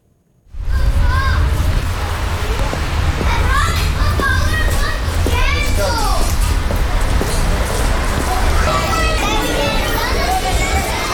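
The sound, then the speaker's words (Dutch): A children's party in a McDonald's restaurant in Italy: many kids shouting, squealing and chattering at once over a steady, loud crowd din that continues without pause. “We, we gaan luisteren naar eh, een kinderfeestje in een McDonald's ergens in Europa.”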